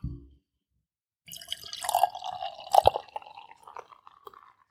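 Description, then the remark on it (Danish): Dark, clear, mahogany-coloured beer glugs and splashes into a glass for about three seconds, fairly loud, with bubbly gurgles and a rising tone as the glass fills, after a brief low thump against the microphone. “Jeg prøver lige at hælde også.”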